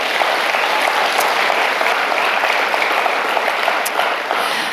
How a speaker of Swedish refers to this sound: En applåd till Jesus, eller hur?